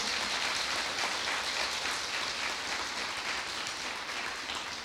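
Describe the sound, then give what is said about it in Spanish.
Steady, dense applause from a crowd, given to God: a continuous crackling wash of many hands clapping at even loudness throughout, with no voices standing out. “Den ese fuerte aplauso a Dios.”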